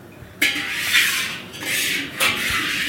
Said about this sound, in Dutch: Er gaat nu een enorme wokbrander onder een wok aan. Het is vrij indrukwekkend. Hoe groot is die wok? Heb jij een beetje een timmermans oog? Eh, even kijken. Ik denk iets minder dan een meter diameter.